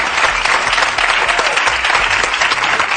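Loud, dense applause from a crowd fills the whole stretch, steady, with rapid overlapping claps and no voices standing out.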